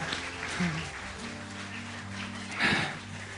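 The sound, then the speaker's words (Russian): A church audience applauds the Lord in a steady, dense wash of clapping, with sustained low tones underneath and a louder swell of applause near the end. “Дай Господу огромные аплодисменты.”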